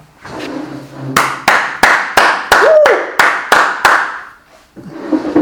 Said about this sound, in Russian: Поэтому встаньте, пожалуйста, и аплодируйте. Я сейчас это сделаю сам, подождите.